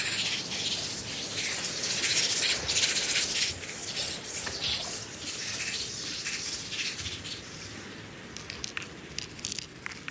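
Sea water sloshing, with a continuous fizzing, crackling hiss like foam bursting, steady for the whole stretch with small splashy bursts and no voices.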